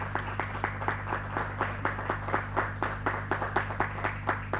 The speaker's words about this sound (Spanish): Vamos a darle un fuerte aplauso al Aleluya.